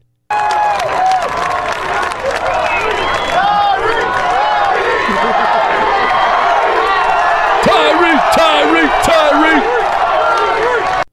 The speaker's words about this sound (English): Yeah, they were going crazy. And the crowd goes wild.